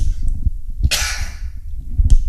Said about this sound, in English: Excuse me one second. I got the cough.